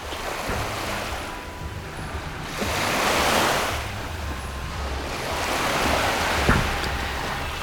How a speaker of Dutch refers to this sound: Ik kom aan in Gisenyi, in het noordwesten van Rwanda. Op een klein strandje aan de rand van de stad kijk ik naar de golven van het Kivu-meer.